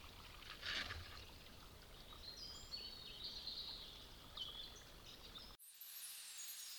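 A forest stream flows steadily with a broad watery rush while birds chirp and trill above it, several clear calls standing out before the sound cuts abruptly near the end.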